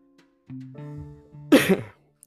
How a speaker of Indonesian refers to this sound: sebelumnya sorry gue batuk karena memang musim hujan ya